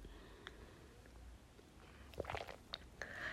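sipping coffee

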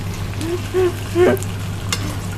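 food sizzling

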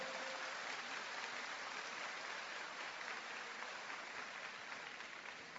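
audience applause

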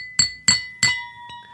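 glasses clinking

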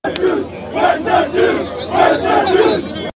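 demonstration crowd chanting slogans

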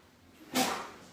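sneeze

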